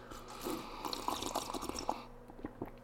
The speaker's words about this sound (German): Und bevor wir jetzt gleich mit der nächsten Meldung ins kühle Nass gehen, nehme ich direkt ein Schlückchen koffeinhaltige Apfelschorle. Prost.